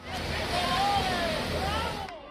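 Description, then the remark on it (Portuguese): A police water cannon sprays in a steady, loud hissing rush, sustained for a couple of seconds, at protesters in Italy opposing required proof of COVID vaccination for workers, with a crowd's murmur and shouts running underneath. “Canhões de água.”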